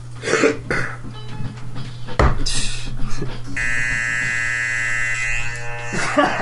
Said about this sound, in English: I'm going to press the buzzer.